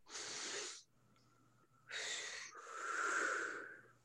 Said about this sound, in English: Close your eyes and take a nice deep breath. And I want you to hear you blow it out.